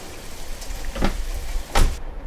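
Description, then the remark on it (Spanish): Light rain begins to fall, a soft steady hiss with a few louder drops pattering on a hard surface. No one speaks. “Ahora espero que hayan traído paraguas, porque está empezando a llover.”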